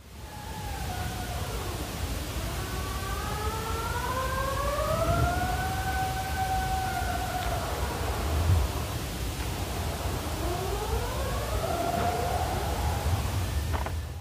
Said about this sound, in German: Und eine Aufnahme werde ich uns jetzt mal einspielen. Und zwar sind das singende Eisberge.